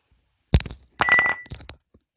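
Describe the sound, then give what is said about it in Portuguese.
A kicked ball strikes the window of a house: a sharp impact, then the glass shatters loudly in a burst of bright tinkling shards, with a few trailing clinks as pieces fall. No voices. “chutou a bola tão alto que acertou o vidro da, de sua casa.”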